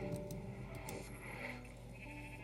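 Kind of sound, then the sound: sound effect, video game sheep bleating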